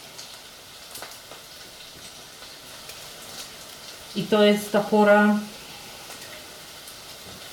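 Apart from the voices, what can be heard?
chicken sizzling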